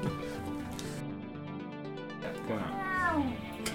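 A single drawn-out cat meow rises and falls near the end, clear, following a few seconds of muffled background noise.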